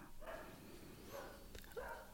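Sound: neighbors' dog barking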